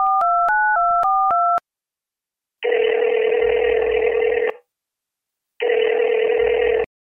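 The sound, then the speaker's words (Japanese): A quick run of about seven electronic keypad beeps dials a phone number to call a senior acquaintance, followed by two long, buzzy ringback tones separated by a pause of silence, heard clearly with no one talking. “じゃあ、かけます”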